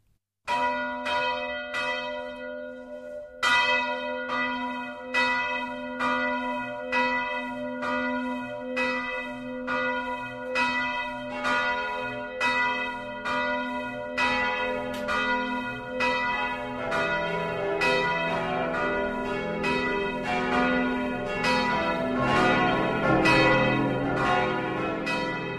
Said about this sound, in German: Es ist 12 Uhr. Das Mittagsläuten kommt heute aus Beidel in der Oberpfalz.